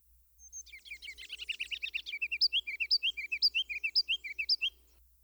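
A tiny olive-green bird in a plum tree a few metres away pours out a loud, piercing song, beginning with a rapid trill of high notes and then a fast run of bright, repeated chirps lasting several seconds.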